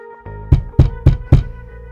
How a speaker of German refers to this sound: Zuerst hat es geklopft. An den Türen. Nicht geläutet. Geklopft. Und nicht etwa so ein scheuches Pöppeln.